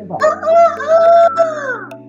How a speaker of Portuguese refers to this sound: É, e o galo que tá cantando aqui, ele canta meio-dia, ó. Ele canta à tarde. Ele canta de, de hoje foi é uma participação especial do galo. É, exatamente. Ele canta em todos os horários vou mandar ele calar a boca aqui.